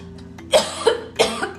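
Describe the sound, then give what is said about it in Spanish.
A person coughs three times in quick succession after drinking an herbal tea, each cough a sharp, raspy burst over a faint steady background hum, with no talking. “Perdónenme amigos, me tomé un tecito que tenía unas hierbitas yo ahora estoy tosiendo.”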